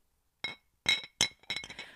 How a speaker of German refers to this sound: habe einfach zwei Gläser aneinander geschlagen, Leute.